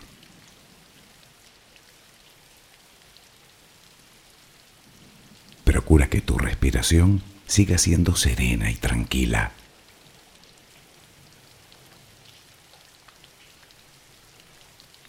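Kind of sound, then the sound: nature, background rain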